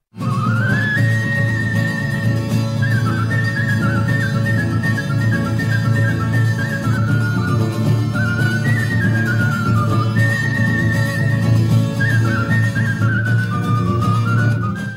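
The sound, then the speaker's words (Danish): A man whistles a flowing melody using his special whistling technique, with clear, high sustained notes and quick slides between pitches, played over a loud, steady low-pitched backing throughout. “det var der, han lærte sin særlige fløjteteknik, som ingen af de her mennesker, vi har hørt indtil videre, har mestret”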